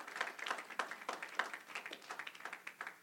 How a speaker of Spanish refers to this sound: En un aplauso al Señor.